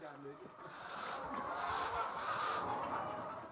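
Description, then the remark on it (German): A dense, steady murmur of many chickens clucking together on a poultry farm near the capital Dakar, Senegal, a continuous crowded flock sound at moderate loudness with no clear breaks. “Wie es besser laufen kann, sieht man in einer Hühnerfarm nahe der Hauptstadt Dakar.”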